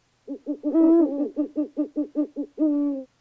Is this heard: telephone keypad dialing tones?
no